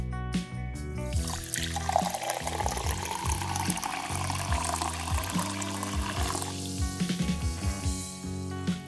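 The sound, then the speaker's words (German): Sparkling water pours steadily for several seconds, a bright fizzing hiss rising over soft background music before the stream stops and the music carries on alone. “Genau, wenn man das Wasser mit Kohlensäure versetzt, dann klingt das Einschenken schon wieder anders. Denn die Kohlensäure entweicht aus der Flüssigkeit.”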